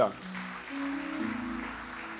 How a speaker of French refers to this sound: On applaudit le Seigneur pour ça, non?